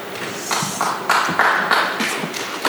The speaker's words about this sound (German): Ja, herzlichen Dank. Es ist Zeit von Beifall, das war noch etwas zahm, aber der kann durchaus jetzt nochmal.